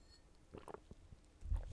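Someone takes a quick, quiet sip of water, with soft wet mouth sounds and a gulp, followed by a low thump.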